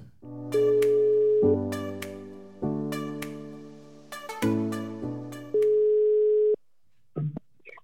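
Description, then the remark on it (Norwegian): A phone line plays a sequence of steady electronic tones while calling out, stepping between pitches in a rhythmic pattern, clear, ending with a brief click and silence. “Da ringer vi inn, da, så kan du få lov å fortelle det sjøl.”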